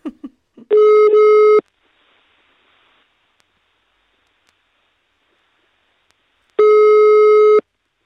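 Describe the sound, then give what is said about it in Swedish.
A telephone ringback tone heard while placing a call: two steady, buzzy one-second beeps separated by a long silent pause, clear, with a few short clicks at the start. “Ja, vi ringer Johan Eklöf och ja. hör hur det gick.”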